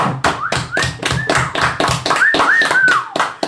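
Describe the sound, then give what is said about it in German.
A small group claps hands in a brisk, slightly uneven rhythm of sharp claps lasting a few seconds, with faint whistling tones rising above the applause, clapping in thanks to a band. “Wollen wir alle mal klatschen?”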